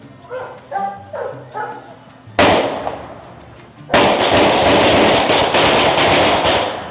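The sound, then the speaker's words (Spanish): A car horn that mimics gunshots: a few short yelping tones, then two loud, sharp blasts, the second ringing on harsh and noisy until the end. “Es una bocina y van a saltar ese carro y la bocina es como de disparos.”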